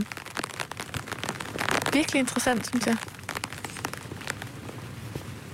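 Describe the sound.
Rain patters steadily and close on a small umbrella, a dense spray of light taps throughout, while a person briefly speaks over it in the middle.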